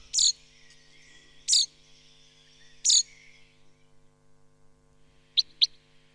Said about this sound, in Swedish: En annan väldigt tidig fågel är bofinken. Den låter så här. Den har ganska många småläten för sig. Jag hör lite olika småläten, lockläten och kontaktläten.